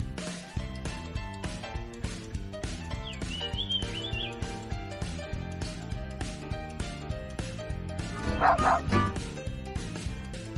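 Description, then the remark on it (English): Upbeat background music plays steadily, and near the end a dog, Harry, a white dog with black spots from a children's story, barks a couple of times in quick succession, the short yappy barks rising clearly above the music. “Harry was a white dog with black spots who liked everything.”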